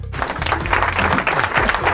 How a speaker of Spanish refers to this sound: Aplausos, por favor. Aplausos.